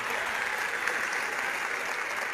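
A steady burst of applause from a crowd for a guest on a show from Tlaxcala: dense, even clapping that holds at a constant level for a couple of seconds with no voices standing out.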